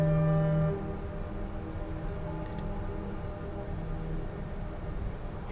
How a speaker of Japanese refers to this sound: すごいめちゃめちゃ響いてますね、うん、そうそうこういうこう、えー、今のは港にいる船の汽笛の音がなったんですけど、いいですね多分五島に行くフェリーですね、今の、それがこう山に反響して、結構なんか 5, 5秒そうぐらいもっとかもしれないもっとか、はい、長く聞こえるんですよね